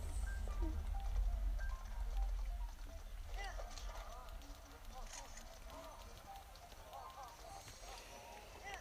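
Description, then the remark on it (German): Steady hooves of the player's horse, named Varuta, clip-clop at a trotting pace in a video game over a low, rumbling game-like background, with someone speaking faintly at times over the rhythmic footfalls. “Also mein Pferd war Varuta ist echt cool.”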